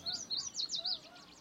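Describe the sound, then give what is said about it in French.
A blackpoll warbler sings a quick run of five or six thin, high chirping notes that fade into softer echoes. The song is moderately faint against a quiet outdoor background. Recorded on a June morning in 1993 at a refuge near the Arctic Circle. “On y entend une paruline à calotte noire,”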